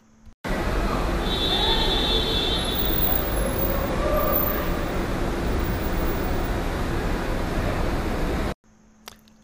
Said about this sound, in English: you unluckily land in Terminal B, to find your Uber, Lyft, or car pickup home, you are led a quarter of a mile to a garage, which is an assault on your senses, with rows of traffic and activity at any hour of the day. This was 10 p.m. on a weeknight.